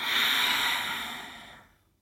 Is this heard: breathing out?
yes